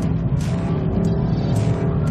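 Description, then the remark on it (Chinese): A BMW M4 six-cylinder exhaust note heard from inside the car, a deliberately tuned, simulated exhaust sound played through the car's audio system: a loud, steady low drone with layered harmonic hum, rising and falling slightly as the engine pulls, with no talking. “而现在这台六缸机，它的声音可以说是烟消云散，在车外可以听到这辆 M4 他们调教过的排气声了，而在车内，你听，”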